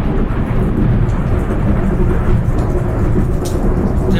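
A loud, steady thunderstorm: heavy rain hisses continuously while deep thunder rumbles low and rolling throughout, with no voices.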